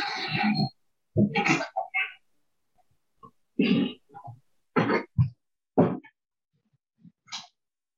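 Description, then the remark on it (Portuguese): Logan, a pet cat, batting and scratching at a door, heard as a series of short, irregular thumps and rattling scrapes, with quiet pauses between bursts and no one talking. “O Logan, meu gato, começou a, a atacar a porta bem agora.”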